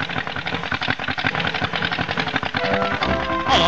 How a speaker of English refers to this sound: Oh, I'll start her. Cold this morning, isn't she? Always a job to start on a cold morning, this car. Never mind, I'll get her going in a minute. Now, she's off. Now, she's off.